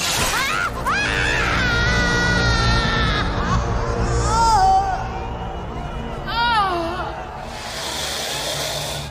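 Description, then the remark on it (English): A woman screams from below in three shrill, wavering bursts, loud, with short gaps between them, over a steady rumbling, noisy background. “Babu, his hand trembling, has managed to produce the revolver, but the Rani's scream coming from below so unnerves him that he jerks the trigger.”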